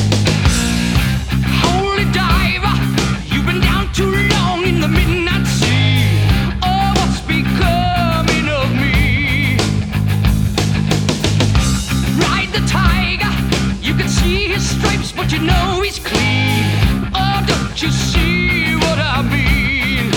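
A classic heavy metal song plays loud and steady throughout, with dense, driving guitars and pounding drums filling the sound, and a singing voice weaving over the top.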